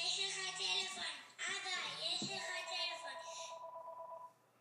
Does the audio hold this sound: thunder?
no